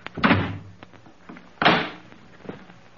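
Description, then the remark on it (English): A front door is pulled open with a wooden thud, then swung shut about a second later with a heavier, booming thump, followed by faint knocks and rattles. No one speaks. “No one's at the door. I'll take a look outside.”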